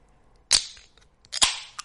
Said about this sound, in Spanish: Antes que nada, como siempre, lo primero de todo es abrir la cerveza, claramente. Que me gusta a mí el sonido de la cerveza abriéndose.